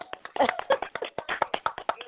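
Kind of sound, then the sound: human body sound, hand clapping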